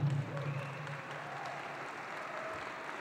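Steady, dense audience applause given to the Lord fills the whole stretch, many hands clapping at an even loudness with no pauses, a faint low hum sitting underneath at the start.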